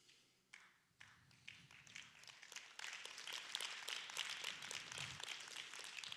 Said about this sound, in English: That was that slow clap that Satan was trying to take out.